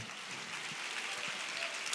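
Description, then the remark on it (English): An audience clapping their hands, a dense, steady wash of many overlapping claps that holds at an even, moderate level for two seconds with no voices over it. “Come on, somebody clap again.”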